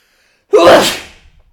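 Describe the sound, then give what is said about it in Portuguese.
A single loud sneeze bursts out after a moment of silence, a short voiced intake snapping into a harsh, breathy blast that trails off quickly; it is caused by peppermint put on the mustache. “E agora estou a sofrer bem, vou ter de espirrar.”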